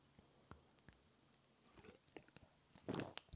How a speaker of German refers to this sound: Mm oh, bitte keine Schluckgeräusche. Ich höre den Podcast später nochmal an, wenn er draußen ist und möchte dich nicht gern schlucken hören.